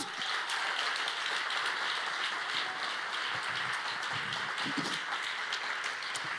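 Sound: audience applause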